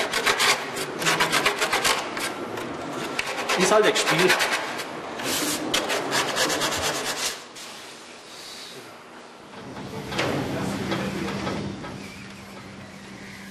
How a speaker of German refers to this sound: die Leute sehen das immer nicht, was da für Arbeit eigentlich drinsteckt, wenn du da schleifen musst und so. Hinterher ist das Ding fertig, schaut schön aus, aber wie lange du geschliffen hast, das war es keiner.